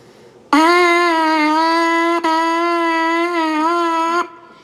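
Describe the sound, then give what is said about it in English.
A wind instrument, played normally without tonguing, holds one steady, loud note for about four seconds, its tone smooth and rich in overtones, with a brief dip partway through and no articulation or talking. “See, like this is just me playing normal.”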